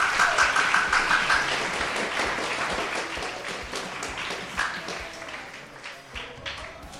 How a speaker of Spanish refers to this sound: Un aplauso para él.